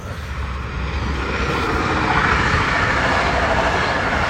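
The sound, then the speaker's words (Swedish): A loud, steady rumble of a passing train fills the whole clip, a broad roar that swells slightly and holds without a break. “Ja, nu kommer det tåg här men...”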